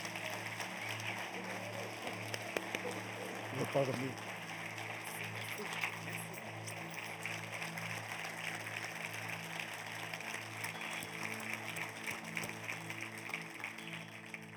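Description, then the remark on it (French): An audience at the Église de Terrebonne applauds steadily for about fifteen seconds, a dense wash of many hands clapping at moderate volume over a low, sustained humming tone. “Donc, dernièrement, est-ce qu'on peut leur donner une bonne main d'applaudissement?”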